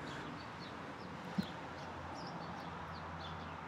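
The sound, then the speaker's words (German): Faint bird chirps repeat every so often over a steady outdoor hiss, with a single soft knock partway through and no one talking. “Ab und zu hört man halt so ein Auto oder die Vögel.”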